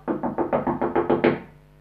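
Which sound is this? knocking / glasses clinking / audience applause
knocking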